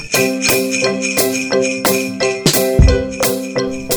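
Bright bells and jingle bells chime steadily in a quick repeating pattern, ringing clear with shimmering overtones and no voices.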